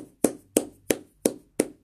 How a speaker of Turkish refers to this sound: alkışlayacağım. Çok hoş.